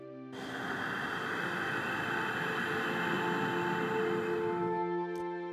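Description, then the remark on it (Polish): A long, steady ujjayi exhale through the throat with the mouth closed, a soft, even hiss lasting about four seconds with a faint steady hum underneath, then trailing off into quiet. “I na sam koniec postaraj się wykonać ten sam oddech zwycięstwa, ale z zamkniętymi ustami, słysząc delikatny szum wydobywający się z gardła podczas każdego wdechu i wydechu.”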